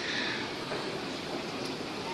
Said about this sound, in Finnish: hyvä esimerkki siitä taas, että ei tarvitse juosta, vaikka metro tuosta silmien edestä meni. Olemme siis Rautatientorin metroasemalla ja juuri edestämme meni